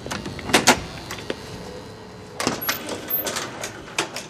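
A metal lattice gate rattles and clanks shut with sharp clicks, followed by a mechanical hum and creaking as an old lift starts moving up toward the sixth floor of an apartment building in Frogner, fairly clear with no talking.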